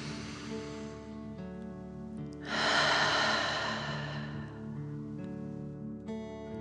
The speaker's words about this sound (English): Again, breathe in through your nose and out through your mouth, pretending you are breathing fire. Deep breath in and out.